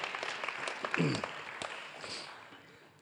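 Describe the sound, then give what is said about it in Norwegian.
An audience claps for about three seconds, a steady patter of many hands at moderate volume, with a brief voice rising over it early on before the applause thins out. “Og så har dere ikke klappa engang.”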